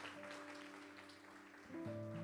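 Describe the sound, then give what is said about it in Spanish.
An audience claps steadily throughout in a dense wash of applause for the Lord, with sustained keyboard or organ chords underneath that shift and swell near the end. “Vamos, dale tu mejor aplauso al Señor.”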